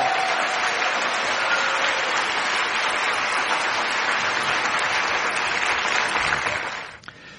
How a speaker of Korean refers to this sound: 여러분이 할 수 있는 최선의 박수로 맞이하겠습니다.